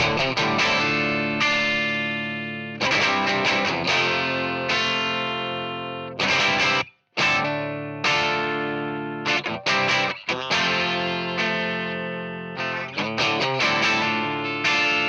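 A loud band recording with distorted, effects-heavy electric guitars driving steady chords, abrupt stops and restarts, and one brief near-silent break around the middle.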